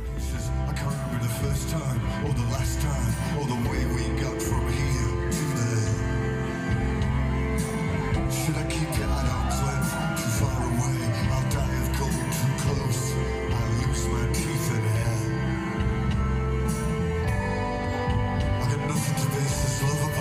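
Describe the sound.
A band plays a song live, with dense, sustained instruments and a steady driving rhythm, staying loud and full for the whole stretch, a singing voice woven into the mix.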